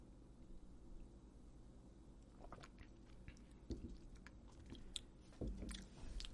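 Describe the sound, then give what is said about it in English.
Quiet mouth sounds of someone sipping and tasting Goose Island Sophie, a farmhouse saison-style beer: soft wet smacks and small clicks scattered over a few seconds, with no talking. “Uh, why don't we chink chink it uh. and sip it?”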